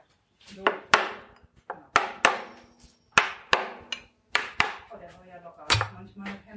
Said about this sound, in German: Wieder der Hammer. Der Mann mit dem Hammer. Okay. Was machst du jetzt? So, seitlich gegenschlagen, damit ich den rausziehen kann, ne?